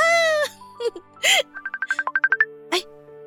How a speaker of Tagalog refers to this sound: Teka, nagre-ring yung phone ko. Aabutin ko lang dun sa may kama.